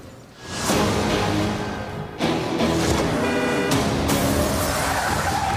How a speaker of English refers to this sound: Oh my gosh, this happens in that movie. This is yeah, that whole scene where the cop car gets spun around and then gets hit by a mm-hmm. semi trailer.